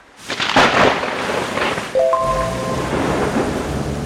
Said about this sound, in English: Let's imagine it's been a week of heavy rain, and Alan and Claire are driving home right in the middle of a thunderstorm.